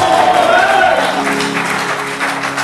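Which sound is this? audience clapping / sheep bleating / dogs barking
audience clapping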